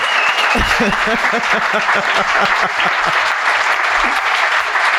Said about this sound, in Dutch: Um, nee, mag ik een keihard applaus voor Hans Simmel.